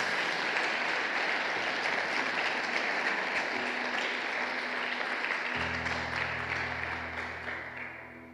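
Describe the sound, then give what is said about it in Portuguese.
An audience applauds Jesus in a dense, steady wash of clapping that holds for several seconds, a low sustained tone joining partway through before the applause gradually tapers off. “Você pode aplaudir Jesus.”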